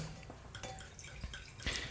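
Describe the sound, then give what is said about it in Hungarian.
Sweet white Málaga wine of 14% alcohol poured into a glass: a soft, steady trickle of liquid with a few brighter splashes and glugs, the louder burst coming near the end, with no talking. “akkor uh, hoztam egy kis malagai bort.”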